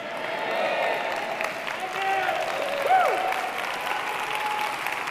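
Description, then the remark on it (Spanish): A crowd applauds steadily for about five seconds, a dense, even wash of clapping with a few whistles and shouts rising above it, holding a constant loudness throughout. “Nos aplaudo fuerte.”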